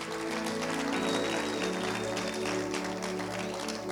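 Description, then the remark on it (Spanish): An audience applauds in a loud, steady wash of many hands clapping, with sustained low musical tones playing underneath throughout, giving a round of applause to God. “¿Le puedo un fuerte aplauso a Dios en el día de hoy.”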